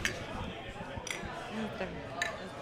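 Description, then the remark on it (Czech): Glasses clink together in a toast, three bright chimes spaced about a second apart, over a low murmur of voices and clatter. “Aby jsme nepovolali mikrofon nebo něco nerozbili.”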